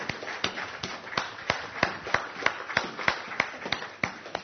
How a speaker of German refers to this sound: Und der Applaus gehört wirklich Gott, weil das ist ein Geschenk.